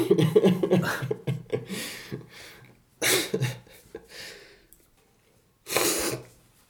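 sniffling

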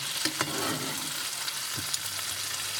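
meat frying

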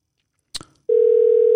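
telephone dial tone

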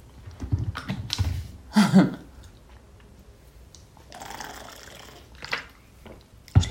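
water being poured

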